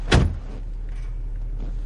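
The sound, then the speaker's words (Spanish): A single solid car door thunk right at the start as a man gets out of a car, followed by a steady low rumble and faint rustling with no talking. “Lennart sale del coche.”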